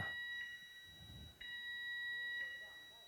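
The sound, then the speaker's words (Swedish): A steady, high-pitched fire alarm tone sounds continuously, swelling in regular pulses about once a second. It is fairly faint, with faint low rumbling or murmuring underneath. “Nu går brandlarmet.”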